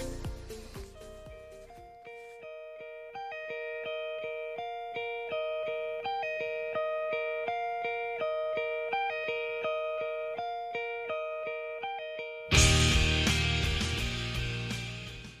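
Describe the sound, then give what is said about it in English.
A song by a rock band plays on a radio broadcast in Seoul: a clean, chiming guitar riff repeats a steady melodic pattern, then near the end a loud band crashes in with distorted guitars and drums. No one speaks. “now let's listen to our next song here. The song is called … and it's by ….”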